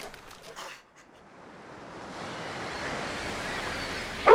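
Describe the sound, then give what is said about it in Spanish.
Ocean surf washes onto the shore, a broad hissing roar that swells steadily louder over a few seconds, with a brief lull near the start and no voices. “Les encantaba ir al mar y ver el agua correr.”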